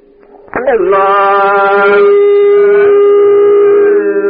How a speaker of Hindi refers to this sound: अभी बंशी से क्या होता है जरा सुन लीजिए बड़ा मधुर है